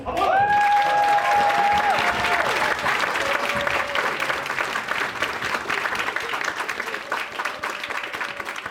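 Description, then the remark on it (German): An audience at Zirkus Wunderblonde applauds the pantomime circus directors steadily for several seconds, a dense wash of clapping that stays loud throughout, with a few tonal whistles or sustained pitched sounds briefly rising above it near the start. “Ein großer Applaus für die Pantomime-Zirkusdirektion.”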